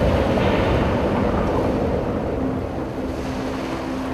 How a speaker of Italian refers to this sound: Quando invece il mare era arrabbiato, emetteva la voce del tuono. Il cielo si riempiva di nuvole, il vento soffiava da tutte le parti e le onde colpivano il molo con la forza di un fulmine.